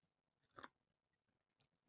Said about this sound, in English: So hang on, sip of water